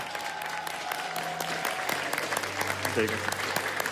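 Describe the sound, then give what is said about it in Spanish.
An audience claps steadily and densely throughout for the Teletón collaborators and workers, a continuous wash of many hands at a moderate, even level, with faint sustained tones humming underneath. “gracias por todo lo que haces por nuestros niños de la Teletón y darte un aplauso gigante a ti y a todos los colaboradores y los trabajadores de la Teletón que hacen un trabajo precioso por nuestros niños.”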